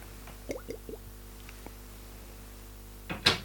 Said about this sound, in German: Ich habe im Moment äh, ein leichtes äh, äh, Problem mit meiner äh, Feuchtigkeit im Mund, deswegen muss ich mal einen Schluck trinken, damit äh, ich euch hier nicht vollschmatze. Also muss ich hier mal eben ein Erfrischungsgetränk zu mir nehmen.